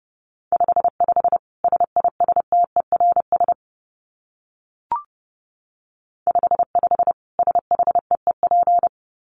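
Rapid Morse code at about 30 words per minute: a steady mid-pitched tone keyed in quick dots and dashes, two runs of characters separated by a pause with a single faint click.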